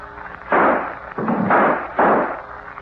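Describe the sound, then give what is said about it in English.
Three loud gunshots ring out in an uneven sequence, each a sharp booming blast with a rough tail that fades before the next, as gangsters shoot a man made to kneel in a radio drama. No one speaks. “Blast him.”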